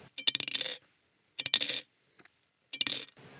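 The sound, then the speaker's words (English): Coins drop into a piggy bank in three separate bursts, each a bright rattle and clink of metal that settles quickly, with short silences between the drops. “You can put the money you save by not buying useless stuff on Amazon in a piggy bank.”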